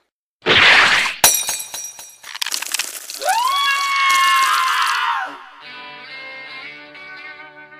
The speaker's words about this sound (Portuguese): Quando você quebra o pote de percevejo no pé delas, imediatamente